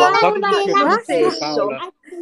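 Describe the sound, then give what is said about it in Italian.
A toddler's voice babbles and squeals in bursts of high, wavering vocal sounds, clear, with a short pause before a final brief utterance. “perdonami il pupo.”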